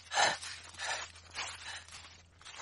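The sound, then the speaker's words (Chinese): Heavy, out-of-breath panting of a man who has just run over to someone: about five rough, breathy gasps in a steady rhythm, the first the loudest and the rest slightly softer, with no talking. “王胖子气喘吁吁的跑到杜宾旁边，一边喘气一边说：”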